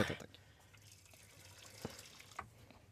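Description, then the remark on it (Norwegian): Wine pours into a glass with a soft, trickling splash, a short burst at the start followed by quieter gurgles and a couple of small clinks, fairly faint. “Um, jeg innser nå også at jeg heller altfor mye i glasset til dere alle sammen.”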